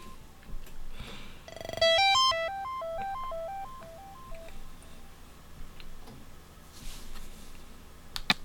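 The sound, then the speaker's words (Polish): A mobile phone ringtone previews briefly as ringtones are selected in the phone's menu: a quick run of bright electronic beeping tones stepping up and down in a short melody, fairly loud, then fading into quiet background noise. “To jest kolejny dzwonek.”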